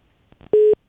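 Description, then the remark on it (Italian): A steady electronic busy tone after a phone call's line dropped sounds once, a loud flat pitched beep lasting about a fifth of a second, preceded by faint clicks and followed by the start of another beep. “Niente, è caduta la linea.”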